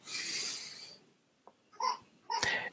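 A baby lets out two short, whimpering cries, preceded by a second of breathy hiss, with brief quiet gaps between the fussy bursts.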